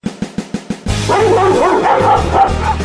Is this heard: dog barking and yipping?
yes